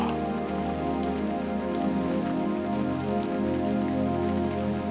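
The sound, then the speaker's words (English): Steady rain falls continuously on a window pane, a dense, even patter of drops striking the glass, with no voices and no breaks across the whole stretch. “Get Sleepy To The Sound Of Rain”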